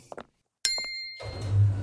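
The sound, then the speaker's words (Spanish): A single bright chime rings out with a sustained metallic tone, followed by a low mechanical rumble and whoosh as an elevator's sliding door opens; a couple of soft thumps precede it. “Mientras se abría la puerta del ascensor, he mirado nuestras figuras en el espejo.”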